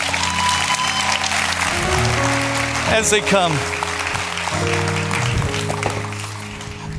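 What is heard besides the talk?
audience round of applause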